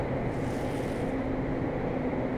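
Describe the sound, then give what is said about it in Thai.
A steady, continuous low rumble of a train running along the tracks between stations late at night, with a faint droning hum and no pauses or voices over the whole stretch. “เฮ้ยป๊บนึงเดี๋ยวก็ถึงแล้วน่ะ แต่วันนี้มัน ดูวิ่งนานกว่าปกติเนาะ นี่สถานีอะไรแล้ววะ”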